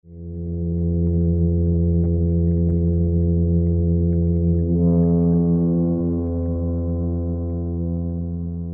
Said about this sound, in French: À l'occasion de la saison des amours, un banc de poissons crapauds à nageoires unies s'est réuni dans le port pour produire ce vacarme assourdissant.